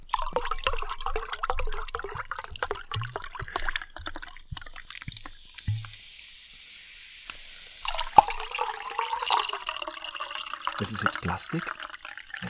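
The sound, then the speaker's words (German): Water pours into a glass in two stretches, a splashy, gurgling flow that stops briefly and then resumes with a denser, fizzing rush of sparkling water at the end; the water is Bergquelle Klassik. “Das war halt nicht voll.”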